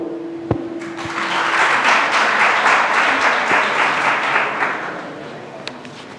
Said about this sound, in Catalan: Un aplaudiment, si plau per tots.